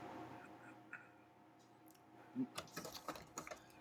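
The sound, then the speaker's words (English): A clock ticks in quick, fairly steady, faint clicks, starting partway through after a stretch of quiet background noise. “I guess this is really inside baseball, but that's a clock.”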